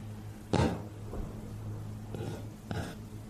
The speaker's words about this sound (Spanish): Alguien tocó la puerta muy tímidamente.